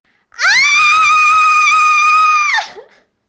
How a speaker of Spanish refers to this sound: le dio miedo y grita.